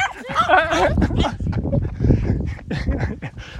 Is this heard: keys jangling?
no